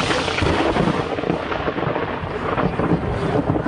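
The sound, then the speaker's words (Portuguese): Heavy rain pours down steadily, growing heavier during the president's outdoor interview, with a deep, rolling rumble of thunder beneath it, a dense, continuous roar filling the whole stretch with no voices. “Em seguida, a chuva ficou mais intensa e o presidente encerrou a entrevista, seguindo ao Palácio do Planalto, onde ele faz os seus despachos.”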